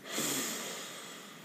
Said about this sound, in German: Und wenn dir das alles zu viel ist, dann atme jetzt mit mir bewusst noch dreimal ein und dreimal aus. Wir atmen ein.